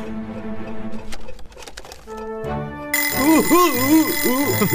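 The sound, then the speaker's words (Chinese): An alarm clock goes off loudly about partway through, a shrill, rapidly warbling ring that repeats steadily, after a stretch of clattering noise and a few short steady tones. “是一个闹钟，有了它，你早上就能准时起床了。”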